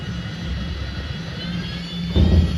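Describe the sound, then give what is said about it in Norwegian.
Steady airplane engine roar fills the cabin with a low hum and whooshing hiss during a landing approach, then a sudden deeper rumble swells near the end as the landing gear is lowered and the wing flaps are extended. “Understellet åpner seg, og landingshjulene felles ned. Og vingeklaffene blir tatt ut.”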